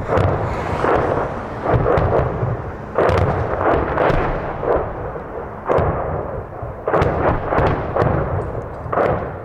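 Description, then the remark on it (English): Russian artillery shells slam into a nearby town in Ukraine one after another, a string of heavy booming blasts over a constant deep rumble, with no voices, each impact a loud, sharp thud that rolls away into the low roar. “Slamming into the nearby town, edging closer to us impossible to tell what the Russians are trying to hit, but another example of the intense bombardment, their bid to stop the counter-offensive from starting.”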